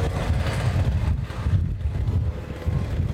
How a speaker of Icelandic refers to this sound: Já, já, það er ekki þetta að taka viðtal út í þessu vindi, sko. Það er lómögulegt.